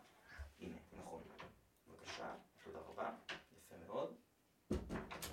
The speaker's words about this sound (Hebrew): הנה, אנחנו שומעים את החתולה שלי ג'ין שלא אוהבת וויסקי אירי, זה קטע. רגע, אני צריך לקום לפתוח לה את הדלת, הייתם מאמינים? בסדר, אני בא, אני בא.